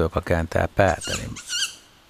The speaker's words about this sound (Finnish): Tämä on eteläinen, eteläinen pöllölaji. poikainen. Onko tämä enemmän poikasääni? Tämä on ääni nimenomaan kerju, kerjuääni, mikä tässä on.